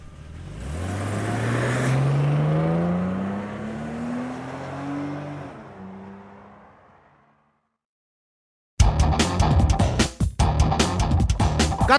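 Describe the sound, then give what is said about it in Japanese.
An FM Ehime car's engine accelerates as it drives to Nankai Broadcasting, its pitch rising steadily as it pulls away and fades, then a short silence before a loud, rough burst of road and vehicle noise. “FM 愛媛の車で今から南海放送に突撃します。”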